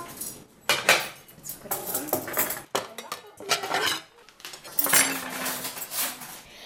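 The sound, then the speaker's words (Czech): Cutlery and dishes clatter and clink repeatedly as children set the table for lunch, with bright metallic jingles and occasional ringing tones, moderately loud and irregular in rhythm, without any talking. “Děcka, chystejte na stůl, oběd bude.”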